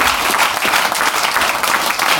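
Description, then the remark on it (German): A brief, steady burst of audience applause at Babylon, many hands clapping densely and fairly loud throughout, with no talking over it. “Kurzer Applaus hier von Babylon.”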